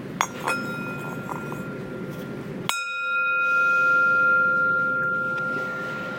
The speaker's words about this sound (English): Here we go once again. just gonna hear a little bit of the bell. Here we go. One more time.